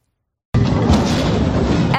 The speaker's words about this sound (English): epic tow truck fail. The car being towed hits nearly every car on the block. What is this? Bumper cars?